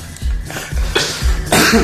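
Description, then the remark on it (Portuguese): A loud fit of coughing, several harsh bursts in quick succession with short gaps between them, with no one speaking. “Ao vivo tem tosse.”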